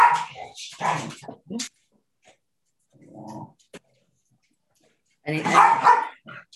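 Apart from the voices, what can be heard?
dogs barking and fighting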